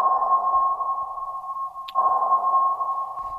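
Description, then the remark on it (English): A steady, humming electronic tone holds throughout, interrupted near the middle by a brief bright ping: a submarine sonar sound drop from The Hunt for Red October played on the radio show Chicago's Morning Answer on AM 560, with no voices present. “That drop from the hunt for Red October means it's time for in depth history”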